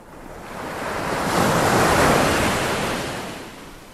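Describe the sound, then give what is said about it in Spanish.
Sea waves wash in a broad, steady rush that swells to a peak midway and then eases back, with a light breath of wind over the water and no voices, as a rowing boat is pushed into the water and sets out to sea. “Empujaron su embarcación al agua y se hicieron a la mar.”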